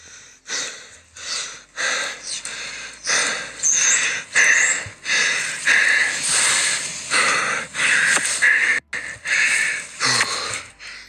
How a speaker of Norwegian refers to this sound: Ellers så kan man bare sende snap at man er ekstremt andpusten, og det ser nesten ut som man holder på å begynne å gråte.